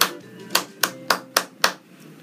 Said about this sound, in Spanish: Ese ritmo. Tres y para ustedes que quizás no sepan leer música, quien esté viendo este video dirá, bueno, él simplemente está aplaudiendo.